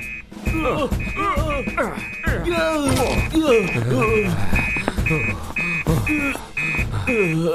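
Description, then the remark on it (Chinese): An alarm rings in rapid, evenly spaced high-pitched beeps that repeat steadily throughout, sounding under excited voices talking over it. “我听见警报响了，我们得到办公室去。”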